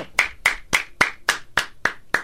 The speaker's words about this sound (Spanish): No, pues no me ah, aplaudas, pues, tú, garbanzo, ni que fuera político